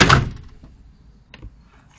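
A window is pushed open with a solid thunk and brief rattle, followed by a quieter click or knock a moment later, then faint background ambience.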